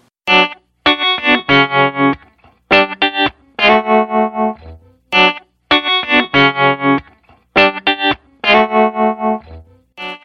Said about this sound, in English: That's rhythm guitar track number one.